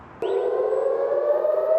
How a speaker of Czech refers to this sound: Izraelská vzdušná obrana nejprve rozezní sirény a zároveň vyšle střelu, která ve vzduchu palestinskou raketu zničí. Systém ale nemá stoprocentní účinnost. Izraelští civilisté musí pokaždé hledat úkryt.